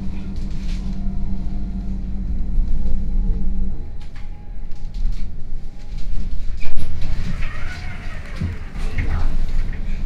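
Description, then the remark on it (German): Inside a moving tram, with a stop announcement for Stauffenbergstraße: a steady low rumble with a humming motor tone that drops away partway through, faint rattles and clicks, and indistinct voices in the background. “Nächster Halt, Stauffenbergstraße.”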